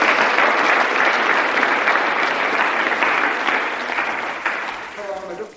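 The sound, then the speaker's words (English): A crowd applauds steadily, dense clapping for several seconds before tapering slightly at the end as a voice begins to come through, clapping for a couple brought out to give a testimony. “Give them a clap.”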